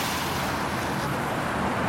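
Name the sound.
street traffic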